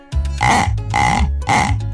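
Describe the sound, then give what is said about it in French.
A person imitates a pig's grunt with three loud, low, rasping bursts in a steady rhythm, each throaty snort rough and guttural, with no talking. “Voyons, on dirait un cochon.”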